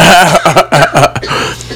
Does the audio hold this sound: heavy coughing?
yes